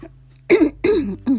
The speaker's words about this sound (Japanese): すいませんなんか今日本当になんか咳が出て喉の調子が良くないですけどあ多分さっき応援しすぎてめちゃくちゃ叫んでたからかそっちかもしれない